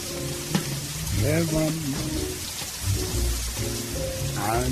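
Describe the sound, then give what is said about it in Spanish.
A steady hiss of falling rain fills the scene without a break, with faint voices or tonal murmurs drifting underneath. “Velasco lo abraza fuerte, bajo la lluvia.”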